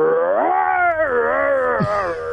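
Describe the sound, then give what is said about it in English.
A person on Sports Radio 810 WHB voices a long, wavering growl-howl imitating a Wookiee roar, rising and falling in pitch for about two seconds before a quick downward break at the end. “And his Wookie impression sounds like this.”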